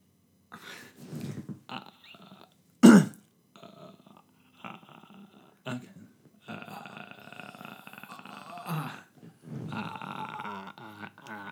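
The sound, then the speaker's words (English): Someone vocally imitates a movie demon's creepy noise: broken guttural croaks and a sharp click, then longer raspy, rattling groans, with short pauses between bursts. “If you've seen it, you know that noise is coming, which by the way was made by him running his hand down a comb.”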